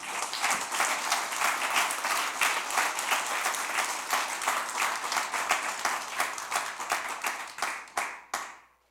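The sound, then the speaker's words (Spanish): A crowd applauds steadily with dense, bright clapping for several seconds, then it thins to a few scattered claps and stops abruptly near the end. “Den un aplauso a Dios porque es bueno.”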